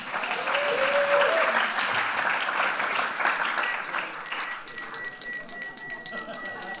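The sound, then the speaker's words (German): An audience applauds the waiter steadily for several seconds, a dense patter of many hands clapping. Partway through, a bright ringing bell, rung to summon the waiter, chimes repeatedly on top of the clapping. “Und dann Dankeschön, Applaus für den Kellner.”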